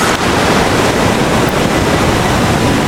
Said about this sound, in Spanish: el agua que llega hacia ti, deja su espuma y se va. Frente a ti el océano su poder.